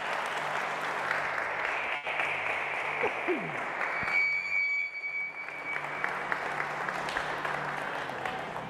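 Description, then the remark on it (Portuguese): Sustained applause for Jesus from a large audience, with dense and steady clapping lasting several seconds, faint background voices and a brief tonal whistle mixed in. “E dê a melhor salva de palmas para Jesus.”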